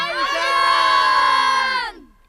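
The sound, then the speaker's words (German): A group of grammar-school boys (Gymnasiasten) roars together in one loud, sustained, high-pitched shout lasting about two seconds, then it cuts off abruptly into quiet. “Die Realschüler schrien, die Gymnasiasten brüllten,”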